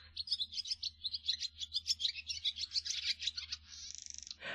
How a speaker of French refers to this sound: plus aucun de ces cris atypiques, vous n'entendrez que les gazouillis de l'hirondelle rustique.